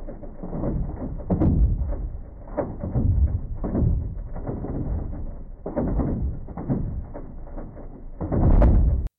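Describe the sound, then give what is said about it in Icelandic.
Recording of an earthquake in Borgarfjörður, the ground rumbling: a loud, continuous deep roar that swells and churns in repeated surges with thudding bursts, building to a stronger blast just before it cuts off. “Þetta er sem sagt upptaka úr uh, jarðskjáltanum upp í borgarfyrði sem er raun og voru að hlusta á jörðina”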